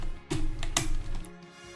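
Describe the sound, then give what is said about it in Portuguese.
A handful of crisp, clacky key presses on a computer keyboard, spaced irregularly over a couple of seconds, over a low steady background hum with no talking. “Olha o meu teclado Olha isso.”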